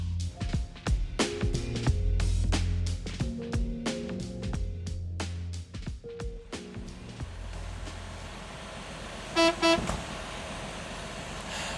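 A sightseeing bus engine rumbles steadily with a burst of rhythmic tooting early on, then a loud, brassy horn blast sounds near the end, opening a Radio Nova tour segment. No one speaks.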